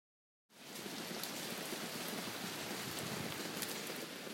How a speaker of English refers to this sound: The last time I've actually talked about this was when there was very heavy rain, which you're hearing in the background right now.